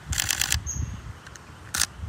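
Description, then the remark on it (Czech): A quick burst of camera shutter clicks taking a few photos on Cousin Island in the Seychelles fires in rapid succession, then a single click follows after a pause, crisp over a low outdoor rumble. “A, pardon, pár, pár fotek.”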